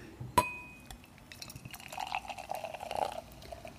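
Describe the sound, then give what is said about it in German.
A sharp glass clink rings out first, then a deep-black dark beer with a dense dark-brown head is poured into a glass: a steady gurgling fill that rises in pitch and grows louder toward the end. “Ich gieße mal ein.”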